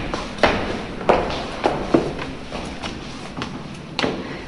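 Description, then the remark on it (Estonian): Footsteps climbing an Art Deco spiral staircase in northern Germany, 89 steps around a central axis leading up toward the Heaven Hall, a handful of distinct treads at an uneven pace, clear over a low background hush, with a final step after a brief pause. “sammume trepi mööda taevasaali poole.”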